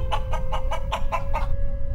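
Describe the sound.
A person imitates a hen's clucking with about seven quick, evenly spaced clucks over a second and a half, clear, before it falls quiet over a low background hum.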